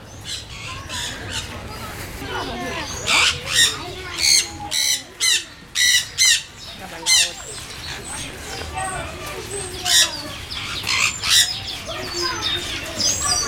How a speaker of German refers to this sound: Da hört man jetzt den Sonnensittich. Er ernährt sich von Früchten, Samen und Blüten. Kommt ursprünglich aus Südamerika. So, so. Ganz schön klein und laut.